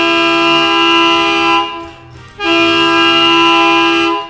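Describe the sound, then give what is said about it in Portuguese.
Two long, loud blasts of a horn with a rich, steady tone, separated by a brief pause of near silence; no voices are present. “Tá, taca tá a mão na buzina aí, né?”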